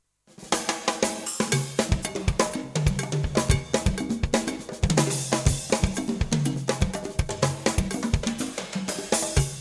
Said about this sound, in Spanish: esto que escuchamos es del primer álbum grabado en los Estados Unidos de Arturo Sandoval llamado Flight to Freedom